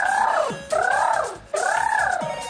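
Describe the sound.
At an evening show in an amusement park, children playing owl characters imitate an owl for the host, giving three loud, sustained hoots in a steady row. Each one swoops up in pitch and then slides back down.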